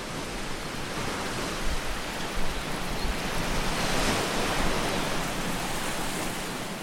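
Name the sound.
sea waves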